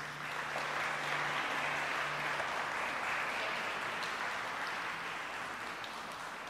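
An audience applauds steadily for several seconds in praise of Jesus, a dense, even wash of many hands clapping at once with no voices on top.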